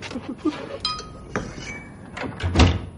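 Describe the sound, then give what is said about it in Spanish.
A few metallic clinks and rattles, then a dressing-room door swings shut with a solid thud near the end as a man enters and closes it. No one speaks. “Entra y cierra la puerta.”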